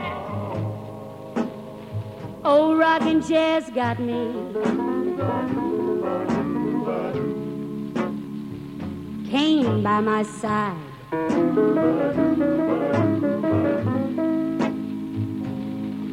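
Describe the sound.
A woman sings a slow, bluesy song with long sustained notes and wavering vibrato, backed by steady instrumental accompaniment throughout.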